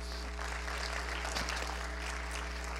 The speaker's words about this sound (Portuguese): Aleluia, aplauda ao Senhor, meu irmão.